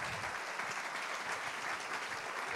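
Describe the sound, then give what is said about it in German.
An audience applauds Jesus with steady, dense clapping that stays evenly loud throughout, a broad wash of many hands with no voices standing out. “Lass uns doch an dieser Stelle mal Jesus einen Applaus geben.”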